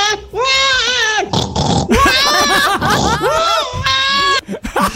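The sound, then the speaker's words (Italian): An adult voice imitates a crying baby with loud, wavering wails in several bursts, pitched high and strained, separated by short gasping breaths. “questo è un adulto che imita un bambino è che piange, però va, va bene così.”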